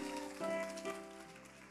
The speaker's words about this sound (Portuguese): Vamos aplaudir ela, gente.